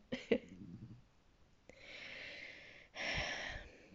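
Soft snoring in the background: a brief snort near the start, then two long, raspy breaths in a row, quiet and steady, with no talking over them.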